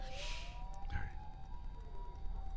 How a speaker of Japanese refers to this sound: まあ、救急車ですね、はい